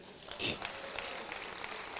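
An audience applauds, a soft, steady patter of many hands clapping together, swelling briefly near the start before settling into an even, continuous clatter.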